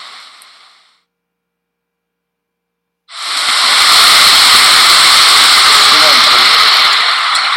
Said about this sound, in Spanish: Son las 3 y media de la mañana, estamos en el clásico callejón del aguacate, está cayendo una lluvia bastante peculiar.